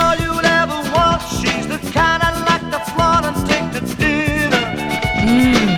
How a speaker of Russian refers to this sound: В авторском исполнении песня звучит звучало так.